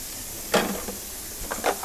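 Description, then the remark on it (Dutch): A steady hiss of warm water running from a tap, left running to fill a water bottle, fills the whole stretch, with a couple of brief clatters or splashes breaking in near the middle and end. “Dus ik ga even een waterfles alvast vullen. Het water is warm, dus ik laat hem even lopen.”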